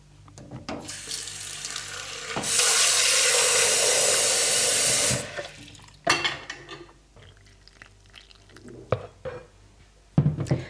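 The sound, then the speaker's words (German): About 240 milliliters of cold water pours steadily into a large bowl of mixed flour, salt and baking powder for tortilla dough, a loud hiss for about three seconds, followed by a few sharp clinks and knocks of kitchenware. No one speaks. “Als nächstes tun wir dann noch 110 Gramm Butter und 240 Milliliter kaltes Wasser dazugeben.”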